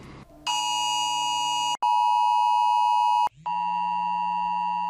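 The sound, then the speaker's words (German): A loud, piercing mobile phone emergency alert tone from a test alarm at 11 o'clock in Rhineland-Palatinate, Germany, blares in sustained electronic bursts, shifting between harsh buzzing and pure shrill tones with brief gaps between segments, no voices present. “Der Probealarm um 11 Uhr sollte viele Handys schrillen lassen.”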